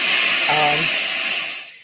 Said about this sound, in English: so what you're hearing is a white noise this would be the um, type of energy.